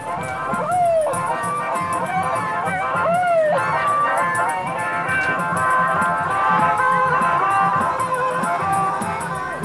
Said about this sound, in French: Dans le brouhaha d'une grande ville au bord de la mer, je suis dans une foule costumée qui célèbre l'arrivée du printemps. Ça fait des mois et des mois que j'ai pas vu autant de monde.